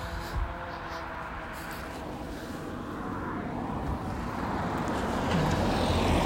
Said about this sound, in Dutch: komt er nog een auto aan.